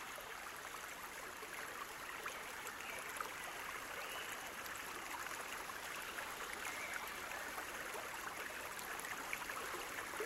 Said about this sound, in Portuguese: Estamos cruzando uma ponte que passa por cima de um lindo riacho de água cristalina, refletindo os raios de sol. Suas águas são calmas e rasas.